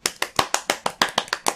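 Hands clap quickly and steadily, around eleven sharp, bright claps in under two seconds at an even rhythm, with no voices over them.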